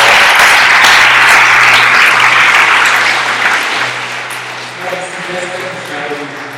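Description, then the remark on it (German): A large crowd applauds together for those who have just decided to follow Jesus. A dense, loud wash of clapping gradually thins and fades, with a faint low hum underneath and a few sustained tones emerging near the end. “Hey, wenn du diese Entscheidung heute getroffen hast, lass uns hier zusammen applaudieren.”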